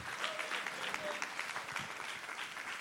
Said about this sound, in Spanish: Den un aplauso al Señor por eso.